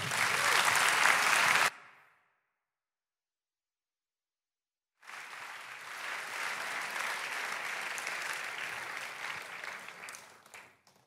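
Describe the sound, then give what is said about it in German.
On Pentecost Sunday, an audience applauds the Holy Spirit in two bursts: a short, dense round of clapping that cuts off abruptly, a few seconds of silence, then a longer, steady wave of applause that fades at the end. “Und komm, wir geben dem Heiligen Geist einen Applaus für sein Wirken durch die Geschichte hindurch.”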